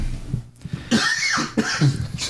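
A short run of harsh coughs, two or three in quick succession, fairly loud, with a brief pause between the first and the rest and no talking.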